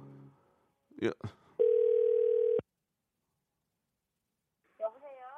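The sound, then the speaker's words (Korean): A telephone ringback tone sounds once as a steady, fairly loud electronic hum lasting about a second while a call is placed to a buckwheat pancake (memil jeonbyeong) shop in Yeongwol, Gangwon Province, preceded by a couple of sharp clicks and followed by silence before a voice begins speaking. “110 하나님 전화 한번 걸어 볼게요.”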